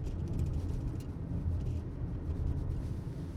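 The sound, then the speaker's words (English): A steady low rumble inside a moving car, with constant vibration and shaking and faint rattling throughout and no one speaking. “sorry, there's a lot of shaking in this car. I just realized maybe getting on the recording.”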